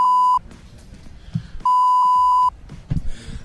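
Two loud, steady censor bleeps over a swear word, a short one and then a longer one, each a flat pure tone. Quieter muffled sounds fill the gap between them and follow the second bleep.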